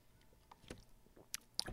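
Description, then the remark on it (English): Quiet mouth and handling sounds of someone taking a swig of water: a few soft wet clicks and a squishy gulp, with a brief bump near the end. No talking. “let me get a swig of water here.”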